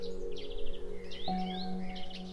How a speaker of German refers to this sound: Höre das fröhliche Gezwitscher der Frühlingsvögel und das Summen der Insekten.